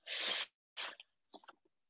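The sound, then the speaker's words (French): Papers being shuffled as someone searches through their sheets: a long crisp rustle, a shorter swish, then a few light crackles and taps as the sheets settle. No voices. “Attention, que je me perds avec mes papiers il était là, excusez-moi.”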